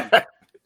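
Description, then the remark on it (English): A single short dog bark heard in a video, sharp and fairly loud, followed by a brief faint trailing noise and then quiet. “That's the dog, like, bro, I had enough.”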